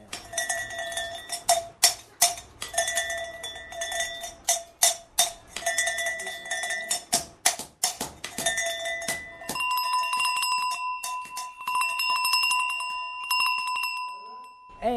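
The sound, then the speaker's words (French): A hand-hammered metal bell, after two or three hammer strikes to shape its tone, rings in a quick series of bright clanking strikes, then settles into a steadier, sustained ringing tone with shimmering overtones. “Vous avez vu avant comment elle était Et après deux ou trois coups de marteau, voici le son qu'elle a.”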